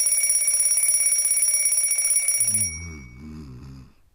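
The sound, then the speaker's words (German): A mechanical alarm clock rings loudly, a rapid metallic clatter lasting a couple of seconds before cutting off, followed by a low, wavering hum that fades out. “Früher waren es wilde Tiere, die sich in die Höhle sneaken, heute Einbrecher oder ein Wecker, der uns wecken soll.”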